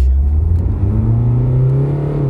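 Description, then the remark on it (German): A Mini Clubman car engine revs and accelerates, its low droning tone climbing steadily in pitch over a couple of seconds, loud with a constant rumbling undertone. “Ja, jetzt hat man gerade kurz gehört, glaube ich, im Gegensatz zum Tesla.”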